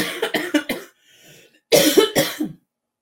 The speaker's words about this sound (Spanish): y también por no toser, pero ahí voy.